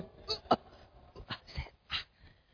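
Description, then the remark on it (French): A voice imitates a dog trying to vomit but failing, with a few short, harsh gagging bursts spaced unevenly, fairly loud, with no words spoken. “Quand je sors, je vois que mon, mon chien, c'est comme s'il veut vomir, mais il n'arrive pas. Donc il fait.”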